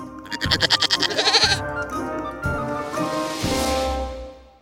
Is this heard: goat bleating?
yes